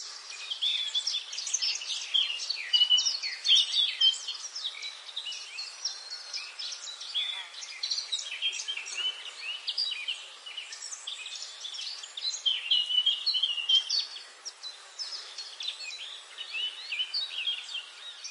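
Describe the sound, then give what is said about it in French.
A dense chorus of high, twittering birdsong fills a forest ambience, with many overlapping chirps and trills at a steady, moderate level throughout and a faint insect-like hum beneath. “Ils traversèrent des forêts denses,”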